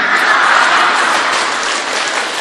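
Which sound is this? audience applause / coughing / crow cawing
audience applause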